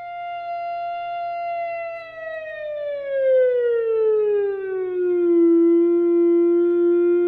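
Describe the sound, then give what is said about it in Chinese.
A steady, rich theremin tone holds its pitch, then glides smoothly downward over a few seconds and settles on a lower sustained note, as a player's three fingers, held in an OK gesture pointing at the antenna, slowly curl inward toward the player. No one speaks. “那现在呢，我们要请同学，请老师呢把三根指头慢慢的往内缩，也就是有点往向自己慢慢的缩，对不对？我们听听看声音有什么样的变化呢？”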